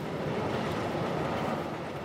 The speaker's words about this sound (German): Während ein weiterer Zug an ihrem Unterschlupf vorbeirast